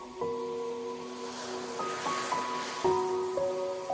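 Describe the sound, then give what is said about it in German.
Gentle ocean waves wash ashore at a beach in a steady, soft hiss, blended with calm sustained musical tones that shift slowly in pitch; no voices are heard. “Du schaust aufs Meer und siehst, wie eine Flaschenpost angespült wird.”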